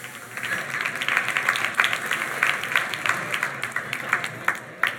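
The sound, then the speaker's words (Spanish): A live audience breaks into steady applause for those who saw the dress as blue and black. Dense overlapping claps fill the room for several seconds at a moderate level, with no one speaking over it. “Levanten la mano los que vieron eso. Un aplauso a esos.”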